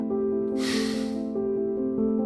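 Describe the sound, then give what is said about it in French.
A single audible exhale during a guided breathing exercise, an airy whoosh lasting under a second, rises over a steady, sustained musical drone, with no talking. “Prends le temps d'une respiration.”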